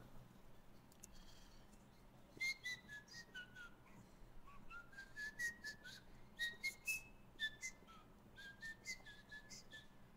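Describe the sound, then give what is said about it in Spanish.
Someone whistles a lively, bouncy melody from Plants vs. Zombies, quick pitched notes, clear over a low hum, with short pauses between phrases and no talking. “Ah, chis, ¿cómo dejaste de chiflar y seguí escuchando?”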